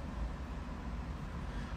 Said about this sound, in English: I've been sitting here, my car been running this whole time. My inner, my engine is on.